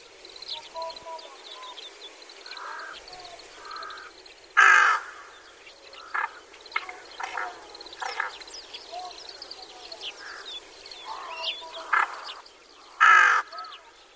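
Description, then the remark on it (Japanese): Rook calls: a flock of dry, slightly light caws, lighter and drier than carrion crow calls, overlapping in a busy chorus, with two louder calls standing out sharply above a steady background of other birds. “端細ガラスに比べて鳴き声が若干軽く乾いた感じに聞こえることもミヤマガラスを見つける手がかりになるかもしれません”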